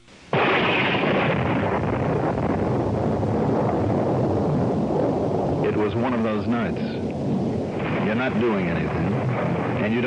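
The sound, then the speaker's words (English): A sudden crack opens into a loud, deep, continuous rumble of thunder from a night thunderstorm over a city. It rolls on for about ten seconds, with faint voice-like tones rising over it partway through. “This night, with the city trembling under a thunderstorm, the trouble was murder.”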